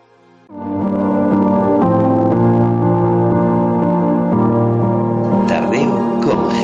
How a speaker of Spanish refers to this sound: una cantante que le canta una canción a su madre